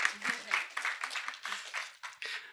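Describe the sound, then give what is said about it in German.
Audience applause after a presentation on fighting disinformation, a dense wash of many hands clapping steadily at moderate loudness throughout, with no speech over it. “Vielen Dank, ja, ist ein Applaus wert.”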